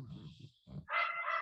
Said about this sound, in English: Um, sorry for the barking dog in the background.